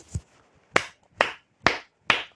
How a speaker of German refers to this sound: Applaus!